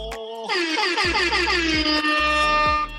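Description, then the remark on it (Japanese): A loud, blaring air horn sound effect, set off by the show's host himself, fires in rapid repeated blasts, bright and brassy with a descending pitch sweep, ringing alone without any talking. “これは自分で僕が鳴らしてますからね、大丈夫 いやでもめっちゃいいよねエア ホンいやもう大好き大好きクラブといえば MC といえばって感じだよね”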